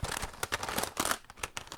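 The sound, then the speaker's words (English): Plastic Game Boy game cartridges clatter and clack as a man rifles through a drawer of them, a quick run of overlapping knocks and scrapes with no talking. “That is the sound of a man rifling through Where are a they?”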